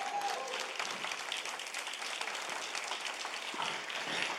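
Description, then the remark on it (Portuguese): An audience breaks into sustained applause for Jesus, a dense wash of many hands clapping at a steady loudness throughout, with no voices standing out. “Mais uma forte salva de palmas para Jesus.”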